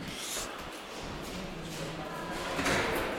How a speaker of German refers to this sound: Tür auf und raus.